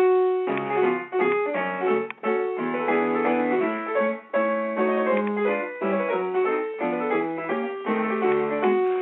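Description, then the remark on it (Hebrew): A lively mazurka, a Polish folk dance in 3/4 time, plays throughout in a brisk triple meter with accented, bouncing phrases, more energetic and less lyrical than a waltz, full and clear, with no one speaking over it. “כבר הרבה יותר נמרץ, זה ריקוד המזורקה”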